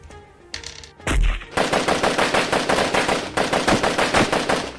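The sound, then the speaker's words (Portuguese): A loud, sustained burst of rapid automatic machine-gun fire, with dense repeated shots rattling in a fast steady rhythm for several seconds after a brief lead-in. No one speaks. “Deixa eu só rolar os dados aqui do, do pessoal com a metralhadora.”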